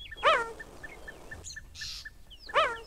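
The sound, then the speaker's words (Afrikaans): A cheetah gives two sharp, high-pitched chirping calls about two seconds apart, each a brief bird-like yelp, with faint rhythmic ticking and a soft rustle in between. “Jagluiperds brul ook nie. Luister 'n bietjie hierna.”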